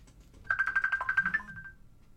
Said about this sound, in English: I'm hearing a phone ringing somewhere. That's a bit strange. I thought it was on the record for a minute.